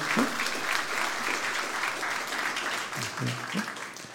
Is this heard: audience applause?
yes